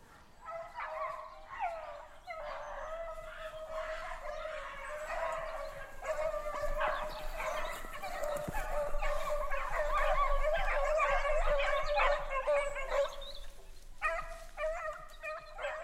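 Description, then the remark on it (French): A pack of hunting dogs baying and yelping continuously, several voices overlapping in a dense, excited chorus, swelling louder through the middle before thinning out near the end. “Après, quand il y a un qui va crier, ils vont tous rappliquer sur lui.”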